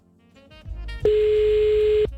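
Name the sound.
phone line tone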